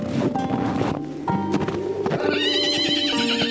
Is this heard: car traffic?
no